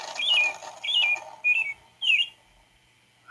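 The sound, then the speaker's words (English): A recorded bird call plays from a See & Say talking toy: four short chirpy whistling phrases in a row, then a brief fifth starting, clear with a slightly electronic, tinny quality and no talking. “Yeah, I'm, I'm just having fun with the, with the my my See & Say. the bird says.”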